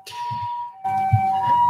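An ambulance siren wails outside, its two-tone call sounding continuously and growing louder partway through, with a low rumble of traffic beneath it and no one speaking.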